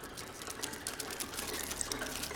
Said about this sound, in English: A distinct scurrying sound almost sent her tumbling off the dining room chair.